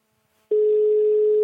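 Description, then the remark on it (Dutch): A loud, steady telephone ringback tone starts after a moment of quiet and holds one unbroken electronic pitch, like an outgoing call from Meer Zonder Jaren Radio ringing on the line. No voices are heard. “De telefoon gaat in ieder geval over, dat is al het eerste.”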